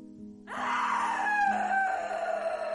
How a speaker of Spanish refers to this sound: ¿Qué son esos gritos